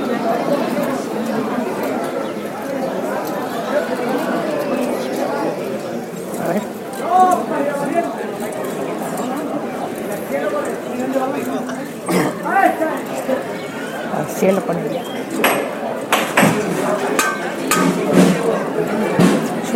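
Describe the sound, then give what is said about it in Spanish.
A busy outdoor procession crowd murmurs and chatters, and a few sharp, isolated hammer knocks ring out over the voices, signalling the float bearers to get ready and, at the next knock, to move the float. “Van a, van a dar un martillazo y ya se están preparando y ya al siguiente martillazo se moverá el paso.”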